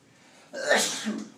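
A single sharp sneeze bursts out after a brief quiet lead-in, a loud explosive burst of breath that trails off within about a second.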